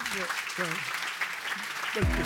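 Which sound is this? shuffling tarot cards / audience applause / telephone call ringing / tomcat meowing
audience applause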